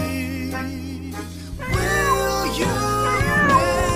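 A small black cat, standing outside under a windowsill, meows insistently toward the inside of a house, its high, wavering cries rising and falling in a couple of drawn-out calls over a steady background hum.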